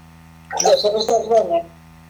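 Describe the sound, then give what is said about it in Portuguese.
A CD holding 21 songs whirs steadily in a disc drive, a low continuous motorized hum that runs the whole time, briefly overlapped midway by a short burst of voice. “Sim, o CD é? está a rodar.”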